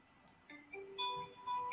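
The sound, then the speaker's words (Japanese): A telephone ringtone plays a short electronic melody of clear stepped tones, starting quietly and growing louder over a couple of seconds, with no talking. “たくさん電話が鳴りました。”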